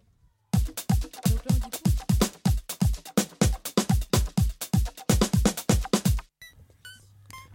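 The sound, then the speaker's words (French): Video game town theme music with an eerie feel, built on a steady, loud pulsing beat of deep thumping notes that stops abruptly, leaving a faint, sparse tail. “Donc euh, là, ce que vous entendez, c'est euh, l'avant-ville.”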